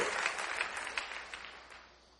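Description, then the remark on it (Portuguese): A crowd claps together in praise of Jesus, a dense, steady burst of applause gradually tapering off toward the end, with no voices standing out. “Quem pode aplaudir a Jesus?”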